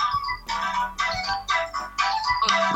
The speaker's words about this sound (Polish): Może odrzucę telefon, tylko żeby nas nie ogłuszył dzwonkiem.